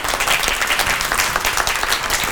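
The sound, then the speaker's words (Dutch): An audience applauds steadily as the next guest is called forward, a dense wash of many hands clapping at once with no pauses, loud and even throughout with no voices standing out. “Kom naar voren, geef een hartelijk applaus.”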